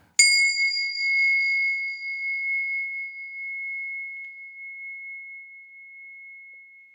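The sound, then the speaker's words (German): A single bell, used to ring an academy's sessions in and out as a tone of attention, is struck once, giving a clear bright ding that rings out and sustains as a pure, slowly fading tone for several seconds, with no other sounds around it. “die jeweiligen äh, Sessions der Akademie ein- und ausläute.”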